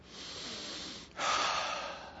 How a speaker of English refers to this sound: I'm breathing freely.